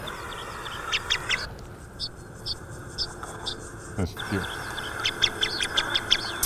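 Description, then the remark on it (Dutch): Thin, high pipit flight calls repeat in quick, irregular bursts throughout, over a steady rumble of wind and handling noise, with a brief lull partway through. “Het klinkt heel goed voor mijn Golfs pieper.”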